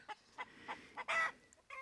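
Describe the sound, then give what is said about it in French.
Hens in a henhouse cluck in a quick series of short, evenly spaced calls, followed by a longer drawn-out squawk and another cluck, clear with no voices. “Ils vous mèneront au poulailler dont vous saluerez les habitantes, descendantes directes des dinosaures, et le coq aux allures de tyrannosaure.”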